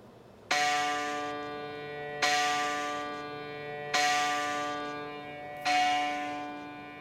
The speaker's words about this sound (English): So this is now unmuting all 11 of the tracks. And so it's all 11 tracks playing the same note, the same velocity, and this is what it sounds like.